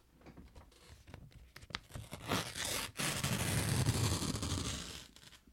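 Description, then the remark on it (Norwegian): Paper being torn and crinkled as the package behind hatch 18 is unwrapped, starting with scattered crackles and rising into a long, loud rip of rustling paper that fades at the end. “Den var pak pakket i papir denne gangen.”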